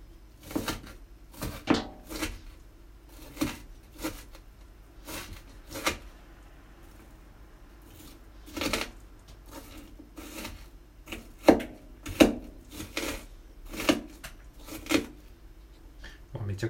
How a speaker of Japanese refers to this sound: えー、今はですね、玉ねぎのみじん切りをしております。玉ねぎのみじん切りをしていいんですけど、ちょっとテーブルテーブルじゃないやまな板が狭すぎてなかなかこう思うようにねこう切れてない感じですねあんまりこう派手に包丁を動かすと玉ねぎがどんどんまな板からこぼれ落ちていってしまってる現象になってますね